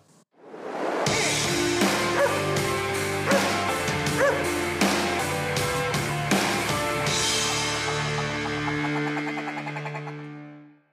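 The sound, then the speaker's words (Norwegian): A short, upbeat musical jingle of about ten seconds, with punchy rhythmic hits over sustained bright chords, played loud and alone before its final notes ring out and fade. “Ok, Da kjører vi en kjapp jingle, vi, da.”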